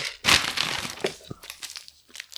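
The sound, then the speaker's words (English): A hand reaches into a crinkly plastic candy bag to pick a candy at random, producing a loud burst of crackling followed by several softer, irregular rustles and crinkles with no talking. “so I'm gonna reach into this bag”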